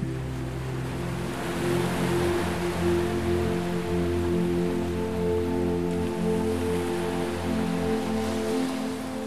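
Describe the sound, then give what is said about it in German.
A steady, continuous rush of sea waves washes along at moderate loudness, with a low sustained hum of tones running underneath and no voices. “Du lässt deine Augen zufallen und hörst dem Rauschen des Meeres zu.”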